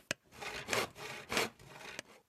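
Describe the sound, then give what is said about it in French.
A hand saw cuts through wood in rough back-and-forth strokes, fairly loud, with a sharp tap at the start and another knock near the end. “Et quand on bricole, ça fait du bruit.”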